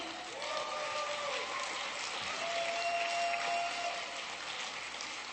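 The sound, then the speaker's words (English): A large audience at the 13th annual National Braille Challenge claps and cheers steadily for several seconds, a dense, unbroken wash of applause with a few shrill whistles rising above it, loud throughout. “All right, lots of cheers.”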